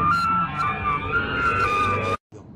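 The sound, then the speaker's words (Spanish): A loud paramedic ambulance siren wails steadily with a wavering pitch over low rumbling noise on Vidrería street on the outskirts of Monterrey, then cuts off abruptly after about two seconds. “Esto, este video se los quise meter en contexto por el sonido de la ambulancia, claro, eh, de paramédicos, no tiene nada, pero es que es muy, muy impresionante.”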